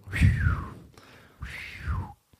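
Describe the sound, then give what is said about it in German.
Two breathy failed attempts at a whistle, each mostly rushing air with a thin, wavering tone that slides downward and never fully sounds. Fairly soft, with a short gap between them. “Ich kann nicht pfeifen scheinbar.”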